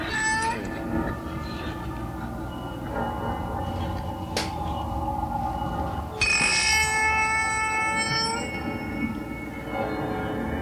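An eerie door creaks slowly and continuously, its drawn-out squeaky groans shifting in pitch and rising to a sharper whine partway through, fairly loud with no one talking.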